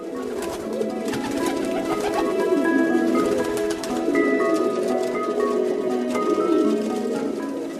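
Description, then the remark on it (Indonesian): Several pigeons coo continuously in soft, throaty, overlapping rolls, steady, with a faint background hiss and occasional higher chirps. “Merpati adalah burung yang tidak pernah mendua hati.”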